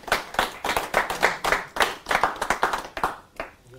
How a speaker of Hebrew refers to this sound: מגיע לו מחיאות כפיים ליהודי הזה